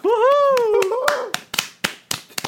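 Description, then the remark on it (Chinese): A run of about eight or nine sharp hand claps at an uneven pace, the first few heard under a drawn-out, sing-song voice before the clapping carries on alone. “你觉得好笑，我就给你拍拍手啊。”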